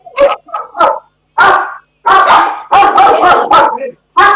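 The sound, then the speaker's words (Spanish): Several dogs bark at someone approaching in loud bursts, starting with a few separate barks and then a rapid, overlapping volley of barking with brief pauses between clusters. “Sí, bueno, pero están ladrando a alguien que viene”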